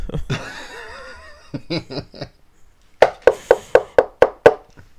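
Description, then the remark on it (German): After a burst of laughter, seven quick, evenly spaced knocks ring out from the basement in a steady sequence, fairly loud and sharp, each a short thud separated by brief gaps. “ich glaube, das habe ich zu laut gesagt, da höre ich es klopfen aus dem Keller.”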